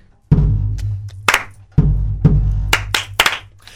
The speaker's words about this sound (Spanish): pero quien está ahorita en un momento en el que pueda usar sus manos, eh, podemos iniciar con los aplausos.